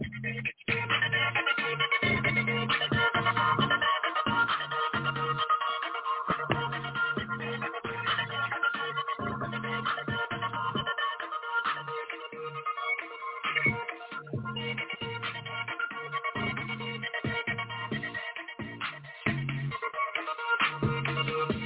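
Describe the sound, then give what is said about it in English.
A new instrumental beat made by one of the speakers, to be released the next day, plays steadily for about twenty seconds, with a pulsing bass line and layered melodic parts. It sounds fairly loud but slightly muffled, and no one talks over it. “I got some new beats that's going to no, be put no, out hold tomorrow.”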